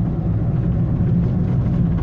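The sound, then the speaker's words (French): A fast motorcycle's engine roars with a loud, steady, low rumble that holds even for the whole two seconds, without any clear rise or fade. No one speaks. “Voilà, monsieur, ta moto, elle va très vite.”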